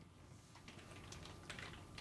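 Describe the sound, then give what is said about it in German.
Quick, irregular clicks on a computer keyboard for a couple of seconds, a steady burst of typing with no voices. “Oh, das jetzt wieder tippen.”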